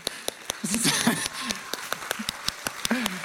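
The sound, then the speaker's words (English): Steady, rhythmic hand clapping from a small group, sharp regular claps repeating for a few seconds, with some voices and laughter mixed in underneath. “I feel like we should applaud extra long.”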